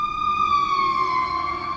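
An emergency vehicle siren wails steadily outside in Baltimore, a loud sustained tone whose pitch sags slightly as it passes by, with no voices over it.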